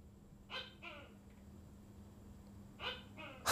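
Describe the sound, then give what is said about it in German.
A giant gecko calls outside, two sets of paired, croaking barks with a short gap between them, fairly faint over a low background hum. “Ich glaube, das ist dieser Riesendeko.”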